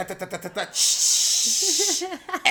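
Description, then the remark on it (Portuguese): A person voices a steady, loud hissing sound like a spray paint can, sustained for over a second, with brief talking just before and after and a little voiced murmuring under it. “cara do. que, que me jogou spray de tinta lá”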